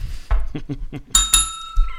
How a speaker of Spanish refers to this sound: Creo que es la primera vez que toco yo la campana, pero lo merecías.